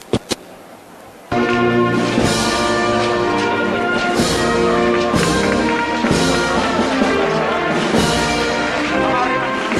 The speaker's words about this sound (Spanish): La Virgen del Subterráneo ya la recibe Sevilla con ese aplauso.